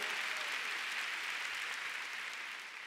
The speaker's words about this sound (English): Come on, let's give the Lord a big hand. Amen. Come on, somebody shout hallelujah. Go ahead and give God a big clap. Hallelujah.